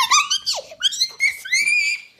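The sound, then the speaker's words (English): A voice imitates the high-pitched shriek of a girl named Mackenzie, a series of shrill, squeaky cries with pitch swoops and sliding wails, loud and continuous for about two seconds. “Then she shrieked, "Oh”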